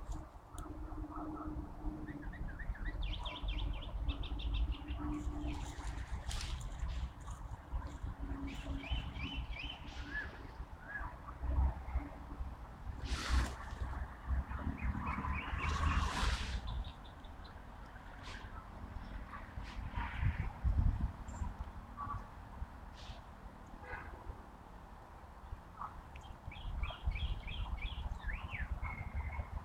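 Several birds, including grey-capped greenfinches, little buntings, azure-winged magpies and Eurasian blackbirds, chirp and call in quick, high-pitched bursts at a rainwater puddle where they drink and bathe. A steady low rumble runs underneath, with a few louder sweeping noises rising and fading midway through.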